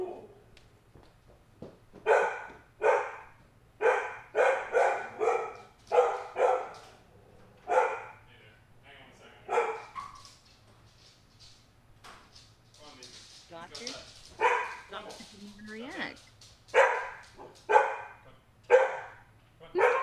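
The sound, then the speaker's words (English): A dog barks repeatedly in quick, irregular bursts, fairly loud, with a few short pauses between volleys and a steady low hum underneath. “You want to bark back?”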